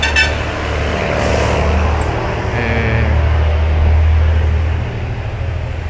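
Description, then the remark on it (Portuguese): A heavy truck rumbles past, its deep engine drone steady throughout and swelling briefly louder before easing off, with no voices over it. Recorded on 25 June 2019. “E o caminhão está passando”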